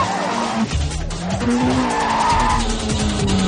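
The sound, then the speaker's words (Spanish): Tires screech loudly as a car swerves hard onto the sidewalk, dodging a red car, engine roaring under sustained squealing that wavers in pitch for several seconds, intense, with no one speaking. “Thomas consigue subirse al la acera esquivando un coche rojo.”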